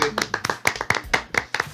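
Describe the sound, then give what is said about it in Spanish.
Someone claps their hands in a steady, fairly quick rhythm, about eight sharp, crisp claps in under two seconds, moderately loud, with no talking over them. “Gracias, Un aplauso a, toda la semana en esto.”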